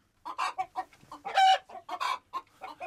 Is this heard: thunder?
no